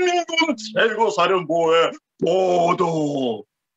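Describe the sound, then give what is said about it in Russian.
A single voice imitates an exaggerated, shrill North Korean TV announcer style, with strained, shrieking rising and falling intonation in two bursts of pseudo-speech separated by a short pause, loud. “иногда народ забавляется, передразнивая северокорейских дикторов, вот это вот характерные визжащие интонации.”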